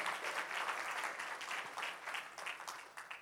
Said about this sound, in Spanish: Aleluya. Dele una ofrenda de palmas al Señor.